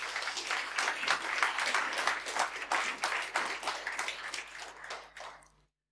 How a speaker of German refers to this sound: Ich denke, das ist ein Beifall wert nochmal.